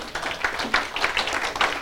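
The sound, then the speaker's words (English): A crowd claps for the Lord Jesus together in a dense, steady patter of many hands, sharp bright slaps overlapping continuously at a fairly even loudness, with no voices standing out. “Clap for the Lord Jesus.”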